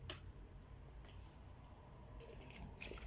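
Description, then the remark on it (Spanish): Someone takes a sip of water: soft, wet mouth and swallowing sounds with a few faint clicks and gulps, quiet and unhurried, no talking. “Ay, esperen, voy a tomar un poco de agua porque esto de hablar es cansado.”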